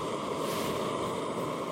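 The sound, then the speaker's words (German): A small camping gas stove roars steadily as it heats half a liter of water for morning coffee, a constant hiss and rumble with no breaks or voices. “Auf dem kleinen Gaskocher erhitze ich einen halben Liter Wasser und mische zwei Instant-Tütchen rein.”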